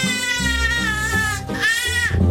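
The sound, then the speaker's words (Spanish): A baby in a diaper, in a dark room, screams in a tantrum after his mother takes a screen out of his hands: two long, piercing, high wails, loud, separated by a brief gasp for breath. “Se pone hecho un pequeño berraco. Ahí vamos, demostrando la fuerza de los pulmones.”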